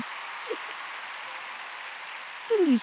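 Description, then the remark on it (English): A steady wash of applause plays throughout, even and moderately soft, like a canned clapping effect, with a brief descending tone sweeping in right at the end. “He's panicking looking for right. the applause.”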